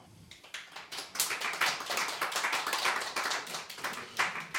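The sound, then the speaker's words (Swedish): A crowd applauds to welcome a group of seated guests, a dense wash of overlapping hand claps that swells quickly and holds steady for several seconds, moderately loud with no voices over it. “En applåd!”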